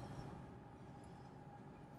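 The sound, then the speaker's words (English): A steady, low rumbling drone of road noise inside a moving car, constant and unbroken, with a faint hum in the mids and no voices. “I don't know if you can hear it. That'd be cool if you couldn't, but you probably will. I'm in the car right now, and I spend a lot of my days driving”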